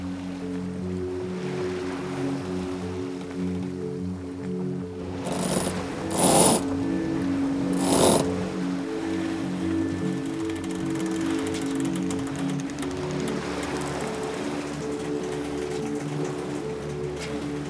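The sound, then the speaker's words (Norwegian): A sailboat pushes through rough water in a stiff to strong gale, with the wind directly astern and the boat rolling, with a steady churning rumble and mechanical hum, broken by a few loud splashing bursts of spray as waves strike the hull. “Dette blir jo da på tredje dagen at det blåser en eh, stiv til sterk kuling. Her eh, braser vi av gårde i riktig retning.”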